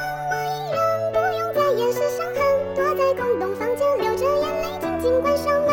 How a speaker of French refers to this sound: Et on va passer maintenant au son ….